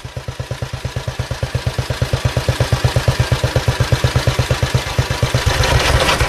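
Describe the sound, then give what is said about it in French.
A finely tuned vintage motorcycle engine idles steadily, its low, even firing pulses ticking over like clockwork, with a slight rise in revs near the end. No one speaks. “C'est une horloge, hein, celle-là. C'est vraiment une horloge.”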